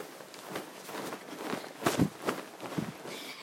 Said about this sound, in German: ich musste gerade so ein paar Sachen umbauen. Wenn du dich wunderst, wo du bist, weil du Geraschel hörst.